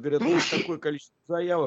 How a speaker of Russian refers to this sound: будьте здоровы.